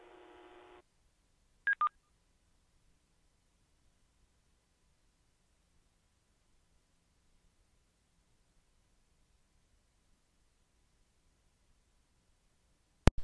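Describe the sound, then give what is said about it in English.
A short burst of buzzy tone is followed by two quick, clear DTMF keypad beeps, entered as radio codes by net control on an amateur radio net. Then comes a long stretch of near silence, ending in a sharp click. “So normally I have my mic uh, muted when I do this, and yeah, now you see why.”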